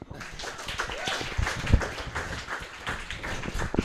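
A small group claps steadily for a few seconds, a dense patter of overlapping hand claps at moderate loudness with a few sharper, louder claps standing out.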